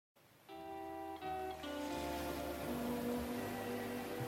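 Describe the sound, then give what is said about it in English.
Steady wash of waves lapping against a shore, a continuous soft surf hiss that swells slightly, with sustained musical chords droning underneath and no voices. “ah hear the lapping of the waves”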